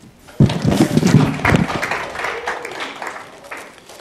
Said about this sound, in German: Kurzen Applaus